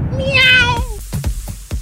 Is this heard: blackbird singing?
no